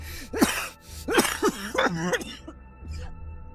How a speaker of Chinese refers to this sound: 话还没说完，人就开始剧烈的咳嗽起来，这一咳顺带着喷出了一口血。